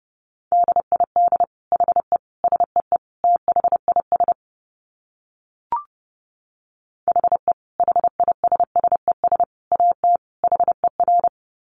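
Rapid Morse code at about 30 words per minute: a single steady-pitched tone keyed in quick dots and dashes, two runs separated by a short pause with a brief click, no voices.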